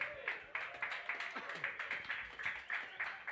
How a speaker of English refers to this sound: There you go right there. Round of applause, man. That was dope.